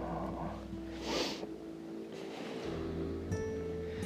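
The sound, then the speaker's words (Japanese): A local-line train rolls past on a sunny day, a steady, loud rumble and rushing roar with a faint tonal motor hum running through it, no voices. “電車の音が鳴ってますけれど、はい、いや晴れた日にこうローカル路線の電車がわーっと通っていくの見るのなかいいですね”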